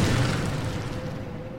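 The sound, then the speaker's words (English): Heavy granite blocks crash down the Grand Gallery of a pyramid after men smash aside the spanning beams with great wooden stakes. A deep, booming rumble stays loud and dense throughout, with a low thundering roar and no voices. “They smash aside the beams that span the central passageway, known as the Grand Gallery, bringing granite blocks crashing down.”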